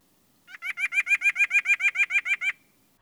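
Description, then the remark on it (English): A male white-breasted nuthatch sings a quick, even series of about fourteen nasal whistled notes, clear, lasting around two seconds with nothing else heard, in early February. “On February 3rd, I heard my male white breasted nuthatch singing.”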